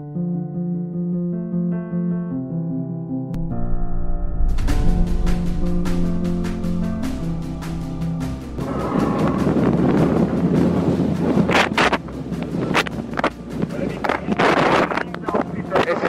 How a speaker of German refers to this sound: Der erste Teil klingt noch ziemlich viel Wind, der zweite Teil klingt noch ziemlich viel Müdigkeit